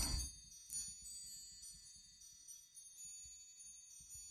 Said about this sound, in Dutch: Mooi hè, deze Rotterdamse staande klok. Ja, fantastisch hè. Ja, misschien horen we hem wel. Ik... Een door een Rotterdamse klokmaker gemaakt. Ik zag het erop staan.